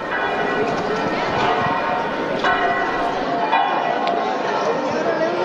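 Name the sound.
church bells ringing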